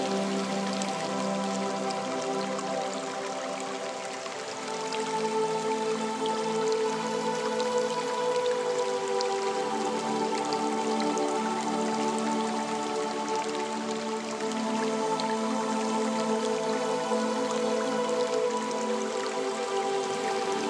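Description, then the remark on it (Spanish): Steady flowing water runs throughout, a soft continuous trickle and patter blended with sustained, gentle musical tones, with no voices present. “Y con esta criatura maravillosa, mágica en la madre tierra, el agua, te purificas, te perdonas, te liberas.”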